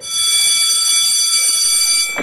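A school recess bell rings loudly and continuously, a steady, shrill electric clang held for about two seconds before cutting off abruptly. No one speaks.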